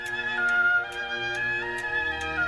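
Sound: clock ticking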